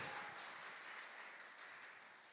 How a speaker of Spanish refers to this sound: Denle un aplauso al Señor en esta noche.